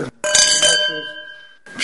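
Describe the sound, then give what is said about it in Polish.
Glasses of Sant Antoni Brut Grand Reserva, a Catalan sparkling wine, clink together in a toast to the arrival of 2013, a bright chime struck twice in quick succession, then ringing out with a clear sustained tone that slowly fades. Fairly loud, with a brief murmur at the end. “E, na zdrowie przede wszystkim.”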